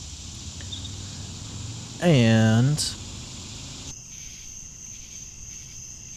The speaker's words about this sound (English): What you're listening to right now is the sound of the cicadas from my grandma's back porch in the morning.